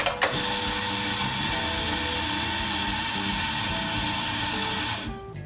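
An electric coffee grinder on a 5.6-second motor timer grinds beans into a stainless steel cup on a digital scale, a loud, even buzzing drone with a gritty edge from the beans, lasting about five seconds, then cuts off abruptly near the end. No one speaks.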